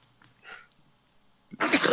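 A single loud sneeze, caused by dust up the nose, bursts out near the end, preceded by a faint breathy intake; no one speaks.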